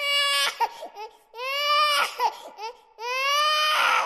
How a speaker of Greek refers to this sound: Στα βαφτίσια είναι λίγο πιο δύσκολα. Πολλά μωρά κλαίνε.